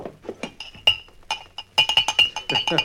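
Whiskey glasses clink together repeatedly on a bar, a quick series of bright, ringing chinks growing busier and louder toward the end, with faint murmuring voices underneath.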